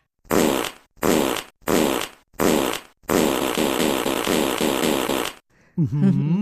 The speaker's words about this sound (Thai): ก็เป็นซาวเอฟเฟกเท่านั้นไม่ต้องตกใจนะครับ ไม่มีใครตดแบบนี้ได้หรอกนะครับ แต่ความจริงถ้ากินถั่วเยอะๆ ก็เป็นไปได้นะเป็นไปได้อาจจะตดนะครับ แต่ว่าคงไม่รวมเหมือนกับปืนกล